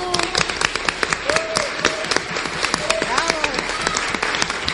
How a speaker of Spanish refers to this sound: Un aplauso